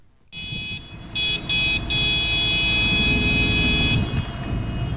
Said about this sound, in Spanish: Las bocinas de los tractores han comenzado a sonar desde algo antes de las 10 de la mañana en el parking del Buesa Arena.